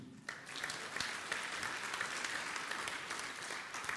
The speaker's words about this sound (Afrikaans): En sy is vanoggend vir die eerste keer hier. Gee lekker 'n klap toe.